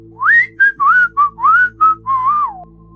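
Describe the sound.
Two people whistle a casual, innocent-sounding tune of seven short, gliding notes in an uneven rhythm, clear, with no talking.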